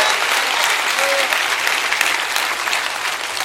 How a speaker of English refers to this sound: Clap your hands and say, I receive it. I receive it.